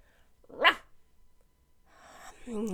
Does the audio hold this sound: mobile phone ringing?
no